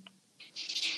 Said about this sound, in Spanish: Ese es mi gato que quiere salir este, despavorido de la habitación porque ya está harta de mi voz, yo creo.